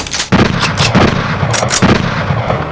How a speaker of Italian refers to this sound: imbraccia un fucile e comincia a impallinare il demone come se fosse un gruviera.